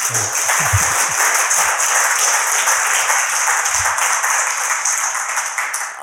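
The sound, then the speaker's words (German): An audience at the Leipzig Book Fair, in the old Nikolaischule in Leipzig, applauds the authors Marc Elsberg and Sven Gerhardt: a dense, steady wash of many hands clapping at once, loud and sustained for several seconds before easing slightly at the end, with no voices over it. “Schön, dass ihr da seid. Ein Applaus.”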